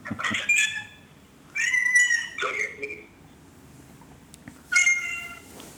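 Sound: cat meowing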